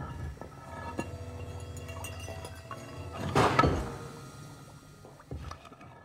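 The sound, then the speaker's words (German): Watery bubbling and sloshing with a few hard knocks, like stones clinking, including a louder burst midway, over a steady low tonal backdrop that sounds like soft music. “Steine und am Ende auch so ein Blubbern, hör mal.”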